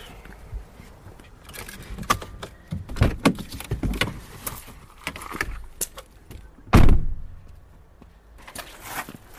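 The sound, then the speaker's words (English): A car door unlatches with a series of clicks and rustling as a person steps out of the car, then swings shut with a solid thump, followed by quieter handling noises outside the vehicle. “I'm going to step out of the car.”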